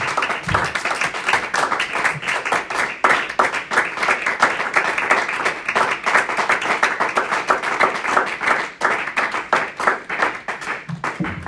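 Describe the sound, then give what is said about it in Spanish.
An audience breaks into sustained applause for the Lord, many hands clapping in a dense, steady rhythm that stays loud for the whole stretch, with a few faint voices mixed in. “Le damos un aplauso al Señor de la gloria, hermano.”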